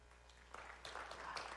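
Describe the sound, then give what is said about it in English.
Sparse, light clapping from a handful of people, a few scattered claps picking up slightly toward the end, fairly quiet and brief, with no talking; audience members clap to show they have been on a ropes course. “Uh, if you'll clap if you've ever been on a ropes course?”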